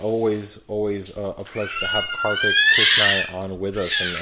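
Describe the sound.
A cat meows in the background, a drawn-out, rising cry lasting a couple of seconds, partly covered by a man speaking steadily in the foreground.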